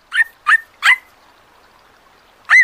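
A puppy gives three quick, high-pitched yips in a row, then after a pause lets out one more whining yelp. The bursts are short and fairly loud, with nothing else in between.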